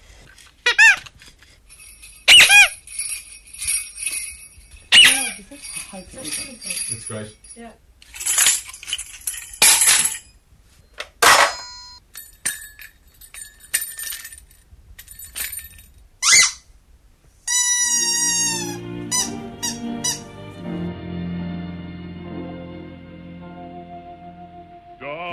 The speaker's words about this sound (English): Okay, the first track of Toys Onto Ground. So we're not really sure what it is, but it looks kind of weird. So we've got good license to do whatever we want with it. So we're going to make it kind of, kind of a bit zany.